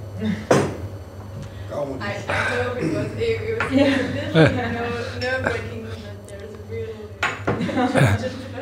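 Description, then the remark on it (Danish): Several sharp clinks of glassware ring out at irregular moments as people raise a toast to a singer, amid a steady low hum and overlapping voices. “Man kunne udbringe en skål”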